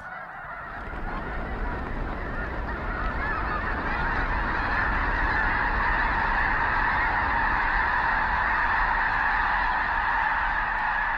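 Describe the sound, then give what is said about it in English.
A large flock of migrating blue geese, resting on a flooded field near Brampton, South Dakota, honks continuously: a dense, overlapping chorus of calls filling the scene at steady loudness, sustained with no voices. “Lang Elliott and Ted Mack caught up with a flock of migrating blue geese resting on a flooded field near Brampton, South Dakota.”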